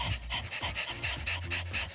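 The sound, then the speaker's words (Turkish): A person imitates a panting dog as a breathing exercise, hand on the flank, with rapid, rhythmic breaths, about eight quick huffs in steady succession, fairly loud, with no talking. “İkinci egzersiz köpek nefesi. Böyle ah, çok koşmuş”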